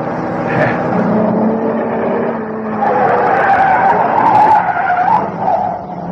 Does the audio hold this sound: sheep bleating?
no